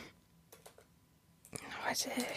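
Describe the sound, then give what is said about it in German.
A handful of soft taps on a computer keyboard click at an uneven pace, then hushed, breathy speech takes over and the tapping is buried beneath it. “was ich auch eingebe wieder mal.”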